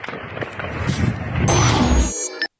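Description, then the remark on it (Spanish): Loud, chaotic bursts of gunfire crack in quick succession over a dense noisy background, building in intensity before cutting off abruptly, during a shootout between police guarding the area and criminals who tried to rob a trailer. “Los reportes dicen que civiles a bordo de un vehículo intentaron robar un tráiler y por eso comenzaron los disparos entre policías que vigilaban la zona y los delincuentes.”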